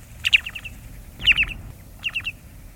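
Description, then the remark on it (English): Three quick bursts of low, mellow whistled call notes from a short-billed dowitcher, a shorebird, each a soft tu-tu-tu series spaced about a second apart, clear over quiet background. “And now, the low, mellow call of the short billed.”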